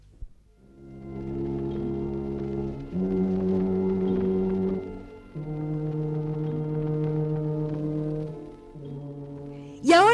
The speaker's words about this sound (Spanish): Sí, así suena la tuba. Es un instrumento grandote, un como tubo enrollado con una gran bocina. Es el más ronco de toda la orquesta y suena grave. Pom, pom, pom, pom. En los desfiles va sonando su voz ronca y pesada. Esta es la voz de la tuba.